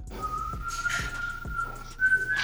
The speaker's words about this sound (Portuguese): Não, pera aí que o meu pai chegou assoviando.